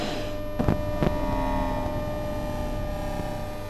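A dense, steady electrical hum from a transport system's electromagnetic field, layered with many droning tones, broken by two sharp crackling bursts early on before settling into a continuous buzz.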